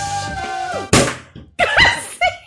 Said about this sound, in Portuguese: Porra! Caralho, eu pensei que fosse um tiro! Meu Deus, que pressa! A gente quis comemorar a temporada com champanhe. E quase estourou os tímpanos e provavelmente o áudio aqui também.